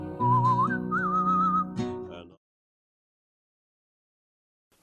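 A bright whistled melody rises and falls over a steady instrumental backing for about two seconds, then the music cuts off into silence.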